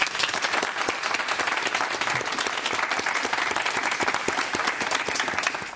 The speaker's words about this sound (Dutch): even, maar een eh, daverend applaus